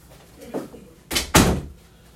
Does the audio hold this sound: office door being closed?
yes